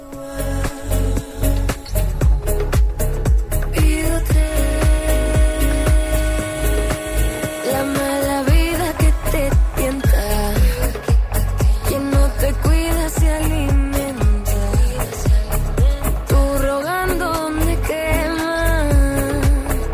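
A song plays loudly and continuously, with a steady rhythmic beat, sustained harmonic backing and a gliding melodic line that sounds like singing, with no talking over it.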